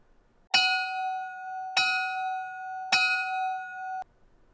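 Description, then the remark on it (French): A bright bell, used as a jingle to open a show's second segment, is struck three times at an even, unhurried pace, each ring sustaining clearly into the next before all of it cuts off abruptly. No one speaks. “Mais pour l'instant, passons à notre deuxième segment, le haut son de la cloche.”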